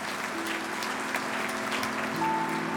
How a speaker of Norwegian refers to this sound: Salen begynner å klappe.